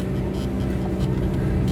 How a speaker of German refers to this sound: Ah, da ist die Müllabfuhr, aber in der Gegenrichtung.